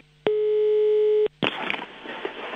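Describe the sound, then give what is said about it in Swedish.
A steady telephone dial tone hums for about a second, cuts off, then gives way to a rough burst of line hiss and crackle as a number is redialed to a landline phone and the call connects. No one speaks. “Kan du slå numret en gång till?”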